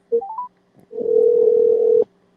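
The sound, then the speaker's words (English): A phone line's ringback tone on an outgoing call: a few quick rising beeps, then one steady electronic tone held for about a second, clear with no voices. “It is ringing. We have some some some some semblance of hope.”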